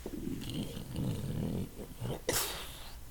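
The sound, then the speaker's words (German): A heavy stone block grinds as it slides upward, a deep, rough rumbling scrape lasting a couple of seconds, then ending in a short, sharp hissing burst. “der Stein wieder nach oben fährt.”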